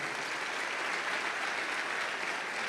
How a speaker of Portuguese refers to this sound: Será que você pode aplaudir ao Senhor?